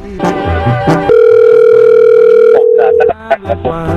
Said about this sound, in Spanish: ya está marcando, ¿eh?